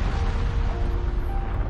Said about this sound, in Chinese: 第二天早上，砰，山又喷火了，响声吵响了霸王龙。